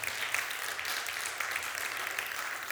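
A church audience applauds the Holy Spirit steadily, a dense wash of many hands clapping at an even level for a few seconds, with no distinct voices standing out.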